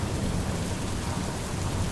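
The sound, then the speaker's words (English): Heavy rain pours down through the tree canopy of a forest late at night in a dense, unbroken roar, with a deep low rumble of thunder breaking overhead. Steady and loud throughout, with no voices. “It is late at night in the Fae Woods, and a storm rages overhead. Thunder breaks above the canopy of the trees, and rainwater pours down to the forest below.”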